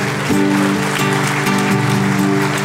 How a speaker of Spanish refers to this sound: Dale un fuerte aplauso al Señor.